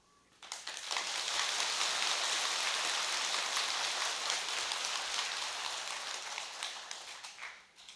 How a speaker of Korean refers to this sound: 그래도 한 번씩 박수가 나오니까 좀 이게 좀 분위기가 사는 것 같네. 난 분위기 봐서 너무 무거우면 박수 한 번씩 치고 그러세요 앞으로.